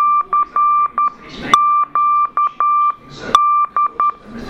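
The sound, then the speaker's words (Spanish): Morse code beeps spelling the CQD distress signal: a loud, steady high-pitched tone keyed in quick dots and longer dashes, repeated in sequence, with brief noisy bursts between repetitions. “Dice, escucha eh, la señal.”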